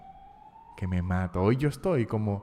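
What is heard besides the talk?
ambulance siren passing outside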